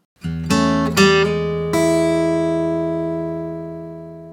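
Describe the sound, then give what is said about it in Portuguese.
A short blues music jingle: a few quick notes strike in succession, then a final chord rings out and slowly fades over several seconds, played alone with no voices. “Cara, esse blues aqui eu ainda tô me acostumando, mas tá cada vez mais sensacional. Que vinheta!”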